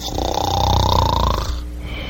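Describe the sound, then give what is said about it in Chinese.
A single long, rasping snore from a little frog fast asleep in a story, with a buzzy, fluttering texture, loud and steady for about a second and a half before it trails off into quiet breathing. “可是，青蛙小弟还在呼呼大睡。”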